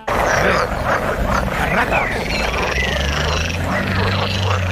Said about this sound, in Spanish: Ranas simpáticas. Ranas, ranas. ranas. charca en pleno, en pleno verano.